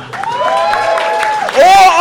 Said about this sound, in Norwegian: gi likevel en varm og ikke altfor bråkete applaus